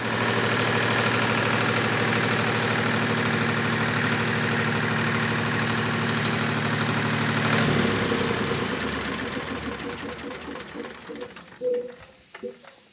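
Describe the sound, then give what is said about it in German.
A tractor engine, used to pump air through a hose for inflating tyres, chugs steadily at idle for several seconds, then winds down and rattles to a stop, leaving a few scattered clanks and faint background sounds. “Ein Traktor, der Luft pumpt, habe ich so auch noch nicht gesehen.”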